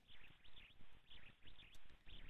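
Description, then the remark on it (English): A bird chirps repeatedly in quick, regular bursts on a radio caller's phone line from KOP, heard thin and muffled through the telephone line, with no one speaking. “Man, I'm loving the bird noise.”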